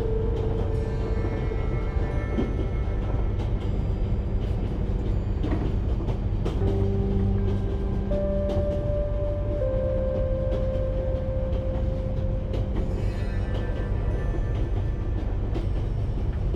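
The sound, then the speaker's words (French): A train on a long-distance journey rolls steadily along the rails with a constant low rumble and faint rhythmic clatter, while sustained tonal hums and squeals rise and fade over the noise. No one speaks. “Voyage au long cours en train”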